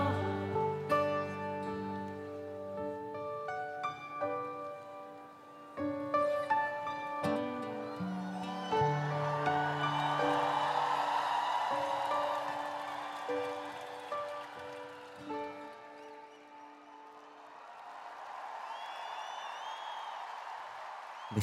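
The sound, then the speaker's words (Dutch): A sung song with sustained harmonic tones winds down, and a broad wash of audience applause rises over its final notes, then carries on steadily by itself to the end. “Leuk hè, als je dat applaus dan zo hoort.”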